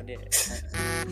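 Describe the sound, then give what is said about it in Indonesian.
A mobile phone buzzes with a notification, a short, fairly loud electronic burst in two pulses, with voices talking underneath. “Itu suara apaan sih? Tatut tatut tatut. Uh, eh, HP gue ada.”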